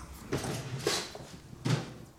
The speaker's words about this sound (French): On va rentrer voir, on va pousser la porte.